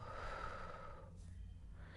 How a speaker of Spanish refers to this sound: Inhalo, regresando a mi aquí y a mi ahora, exhalo.